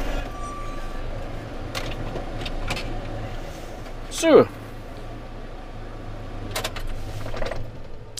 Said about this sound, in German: Auto aus.